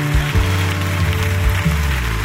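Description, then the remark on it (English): An audience claps steadily for their pastor, a dense, continuous patter of many hands over a low, sustained musical tone, with no voices standing out. “And everybody said, Come on, clap like you got faith for your pastor.”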